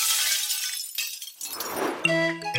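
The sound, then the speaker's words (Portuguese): Window glass shatters in a loud, bright crash, followed by a scattering of shards and a few ringing, tinkling pieces settling as the sound fades. “Uma janela que se partiu.”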